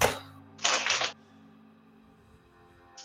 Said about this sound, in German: Also muss würfeln, ne? Ja, okay. Moment. Sorry, dann würfeln.